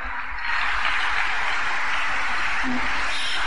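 A crowd claps its hands together in sustained, dense applause that swells in after a brief quieter moment and continues steadily and loudly to the end, with no clear voices over it.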